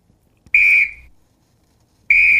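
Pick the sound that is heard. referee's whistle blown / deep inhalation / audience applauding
referee's whistle blown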